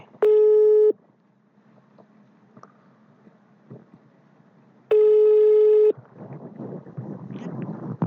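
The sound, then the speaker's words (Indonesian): Two long, steady electronic beeps of a phone busy tone after a mobile call on the Indosat network dropped, each about a second, several seconds apart, loud over a faint background hiss that grows into rustling noise at the end. “Ya, kok mati lagi sih? Ntar ya, gue telepon lagi nih.”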